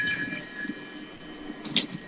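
A train rumbles past with a steady, humming drone and a faint high whine, swelling into a brief louder rattle near the end. No one speaks.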